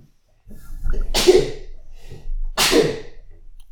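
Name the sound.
sneeze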